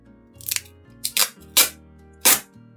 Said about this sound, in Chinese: 胶带和胶水的功能差不多，不过胶带不是液体，胶带的材料是塑料。 啊，我们在使用胶带的时候，你可以听到像是这样的声音，